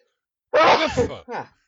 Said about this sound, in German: Gesundheit.